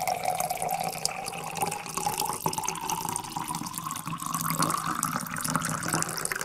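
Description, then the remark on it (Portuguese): Water pours steadily into a glass for several seconds, a continuous splashing gurgle whose pitch slowly rises as the glass fills. No one speaks. “traga-me água. pá, desculpa lá, pá, mas eu, bebo, eu bebo muita água.”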